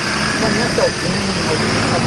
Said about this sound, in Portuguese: a gente está com dificuldade para te ouvir em razão dos carros. Quando o caminhão, o ônibus passa perto aí, eles ocupam totalmente o áudio